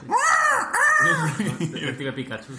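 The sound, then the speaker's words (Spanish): A person imitates an elephant's trumpet with two loud, rising-and-falling vocal blasts in quick succession, followed by a short stretch of murmured voice and chuckling. “Eso era un elefante.”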